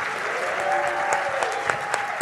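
An audience applauds steadily, a dense wash of many hands clapping at once with a few sharper individual claps standing out, holding at an even, fairly loud level throughout.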